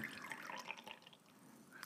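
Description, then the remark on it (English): A short, quiet pour of liquor from a bottle into a shot glass for a big shot, a thin trickling stream with a few dripping, gurgling notes, with no one talking. “Ooh, that's a fat shot.”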